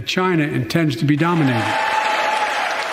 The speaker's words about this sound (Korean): 국내 문제 때는 고함과 야유를 보내던 야당 의원들도 이 대목에선 기립박수를 쳤습니다.